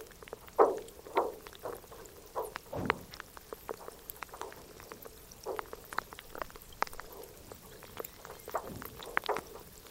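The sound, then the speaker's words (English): Meltwater from the melting Canada Glacier, a small polar glacier towering over a lake in the McMurdo Dry Valleys of Antarctica, trickles and drips in quick irregular bursts, with occasional sharp creaks and pops of ice and a deeper groan, moderately quiet, no voices. “It's a small polar glacier that towers over a lake, and as it melts, the water trickles down and the ice creaks.”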